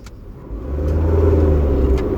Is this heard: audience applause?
no